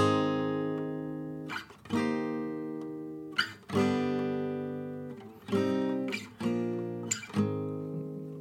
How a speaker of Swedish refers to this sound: Ja, så att eh, nu, nu var det länge sedan jag körde denna på gitarr. Men eh, rundan, den låter ju så väldigt mycket annorlunda mm. på en gura.